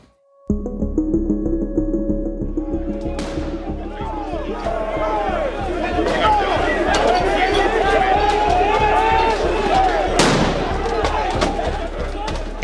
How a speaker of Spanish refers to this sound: Lo que escuchamos son los enfrentamientos de ciudadanos serbios de Kosovo con la policía.